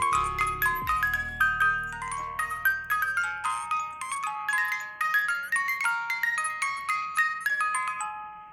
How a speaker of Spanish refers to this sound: Para invocar a esta entidad debe hacer sonar la melodía de aquella caja musical.